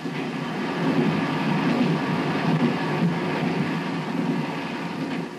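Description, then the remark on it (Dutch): A diesel-electric trainset, one of five built by the Netherlands with Switzerland, made up of a motor car and three passenger coaches, runs steadily on rails during a press demonstration run: a continuous loud rumble with a low engine drone and faint rhythmic track noise, with no voices. “De pers werd in de gelegenheid gesteld om een demonstratierit te maken met dit diesel-elektrische treinstel.”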